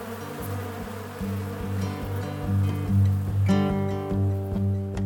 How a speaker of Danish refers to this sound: Der er godt nok mange bier her. Men så længe jeg ikke gør dem noget, så gør de heller ikke mig noget.